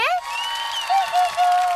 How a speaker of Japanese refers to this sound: あ、すごい、歓声が聞こえるよ。